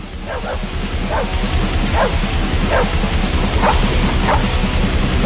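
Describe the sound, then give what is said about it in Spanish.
Dogs bark in a steady, repeated rhythm, about seven or eight sharp yelps, within a song recording, riding on top of loud, dense, distorted music that fills the low end throughout. “voy a escuchar qué dicen estos animales en sus canciones. ¿Qué dice …?”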